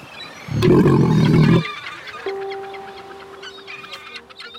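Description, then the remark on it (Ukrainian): A fur seal named Pascal, living on the coast at Mariupol, lets out a single loud, rough bark lasting about a second, followed by quieter background noise with a faint steady hum. “Ви напевно вже здогадалися, що це був морський котик на ім'я Паскаль.”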